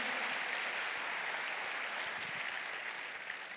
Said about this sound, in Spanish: Está aplaudiendo a Jesús, hermano. Apláudalo de verdad, bien fuerte a Él.